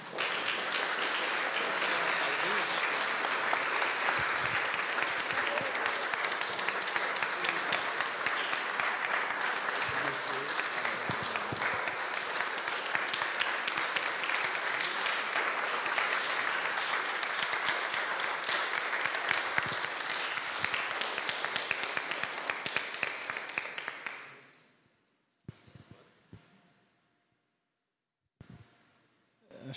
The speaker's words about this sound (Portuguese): Vou pedir aos irmãos que entreguem as plaquinhas. Os irmãos podem eh, aplaudir, né?